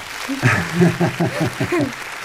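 Steady audience applause as a final round for a guest, a dense crackle of clapping that runs throughout, with a voice talking over it in short bursts.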